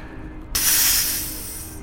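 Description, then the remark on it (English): A voice imitates a blue whale's blowhole exhalation as it emerges from the water: one sudden, loud, breathy whoosh of rushing air, close by, sustained for over a second before easing off, with no talking. “It was the breath of a blue whale that had emerged from the water right next to us.”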